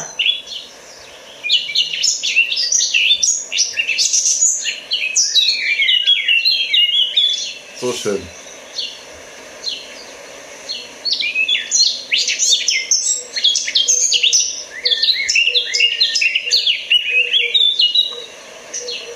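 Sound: songbird singing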